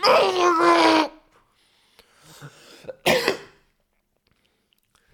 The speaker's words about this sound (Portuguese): Já estou com boeda pouca tosse, por acaso. Aquela tosse que eu tenho há um mês e meio.